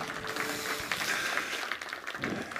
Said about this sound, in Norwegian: Tusen takk dere for måten dere leder oss inn i tilbedelse på. Klapp gjerne litt for dem som et uttrykk for takknemlighet.